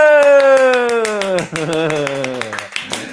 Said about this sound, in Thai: ปรบมือ